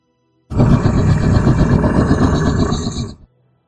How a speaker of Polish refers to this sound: Słyszycie ryk z, wyrywający się z podłogi i ziemia zaczyna się trzęść.